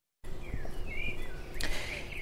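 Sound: birdsong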